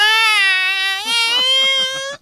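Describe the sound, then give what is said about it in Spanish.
A nine-month-old baby girl in the back seat of a car cries loudly with one long, high, steady wail that breaks into a rapid series of short, stuttering sobs before stopping abruptly. “Una niña de nueve meses estaba en el carro, en el asiento de atrás, güey.”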